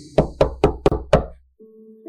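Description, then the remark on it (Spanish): Five firm, evenly spaced, insistent knocks on a wooden kitchen door in quick succession early in the morning, loud, followed by a brief pause and a faint, low steady hum. “Se llegó la fecha marcada en aquella hoja y a primera hora de la mañana escuché golpear insistentemente en la puerta de la cocina.”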